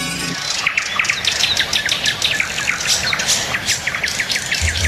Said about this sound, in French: Ah, des bruits d'oiseaux. Oui, oui, oui, parce que nous parlerons oiseaux au cours des prochaines euh, minutes avec un expert un vrai